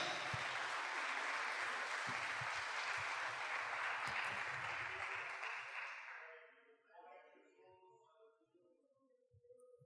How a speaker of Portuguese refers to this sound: Você pode dar um glória a Deus aí e aplaudir o Senhor, porque o Espírito Santo de Deus habita na sua vida.